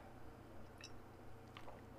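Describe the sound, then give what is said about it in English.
Someone takes a quiet sip of water, with a couple of soft, wet mouth clicks and a swallow against a low steady hum, and no one talking. “Hang on, I have some water.”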